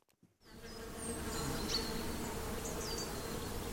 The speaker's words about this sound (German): Eine blühende Frühlingswiese voller Bienen, Hummeln und Käfern, das wird leider immer seltener.